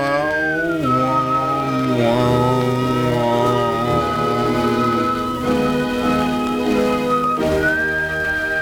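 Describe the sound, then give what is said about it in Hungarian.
An old Columbia gramophone record, made in England, plays a steady, continuous tune with a high, whistle-like melody over sustained accompaniment, moderately loud with a faint hiss beneath and no talking. “Made in England, Columbia lemez.”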